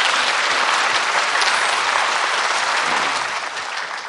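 Steady audience applause for a Paralympics volunteer, many hands clapping in a dense, crackling wash that holds loud for about four seconds before easing off slightly at the end. No one speaks over it.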